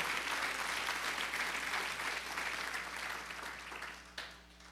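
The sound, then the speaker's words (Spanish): A crowd claps for the Lord steadily in a sustained burst of applause, dense and even, then tapers off near the end with a final sharp clap. “Apláudele fuerte al Señor.”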